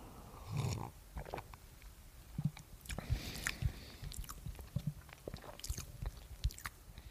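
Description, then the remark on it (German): Someone sips a cocoa drink, with a string of small wet slurps, swallows and mouth clicks spread irregularly over several seconds, quiet and with no talking. “Ja, äh, und dieser besteht jetzt aus anderen Zutaten, aber trink doch erstmal einen Schluck.”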